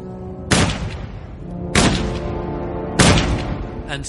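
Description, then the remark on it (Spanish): Three loud, booming gunshots fire at a steady pace, each about a second apart with a ringing tail, over a low murmuring background; a fainter sharp hit follows at the very end. Two SS members shoot Röhm three times in the chest and once in the head. “Y le disparan tres veces en el pecho y una en la cabeza.”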